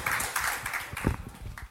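An audience in the Aftonbladet tent applauds the guests, a dense, steady crackle of many hands clapping together that holds for under two seconds and then drops away abruptly at the end.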